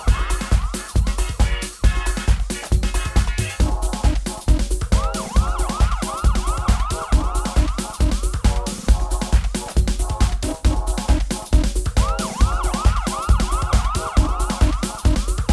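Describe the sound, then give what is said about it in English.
Rising and falling police-style siren wails repeat in bursts over a pounding, fast dance beat with heavy bass. The sirens stay at a steady loudness within the music, and no one speaks. “Can you hear the sirens? They're getting closer.”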